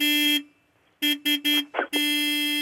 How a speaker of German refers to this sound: Da hupt jemand sehr energisch.